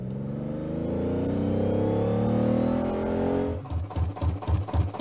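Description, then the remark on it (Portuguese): A car engine hums steadily and fairly loud for a few seconds, then starts sputtering and chugging in uneven bursts as it stalls out after running out of gasoline. No one speaks. “não me diz que tu esqueceu de colocar gasolina no carro, né?”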